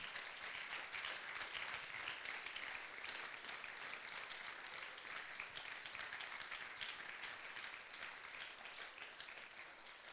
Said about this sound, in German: Dann lass uns mal Gott einen Applaus dafür geben. Ich glaube, das hat er verdient.